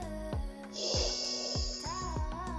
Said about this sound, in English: All right, join me with uh, breathing in